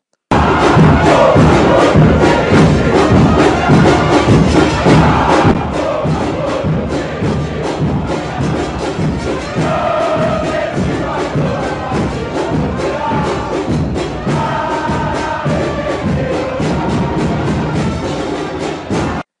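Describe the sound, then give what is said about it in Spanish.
A large stadium crowd of football supporters chants in unison, loud and continuous, with rhythmic pulses and dense layered voices filling the space for the full length; the singing is heard more than any instruments. “Que este ya se escucha más lo que es el canto y no tanto los instrumentos.”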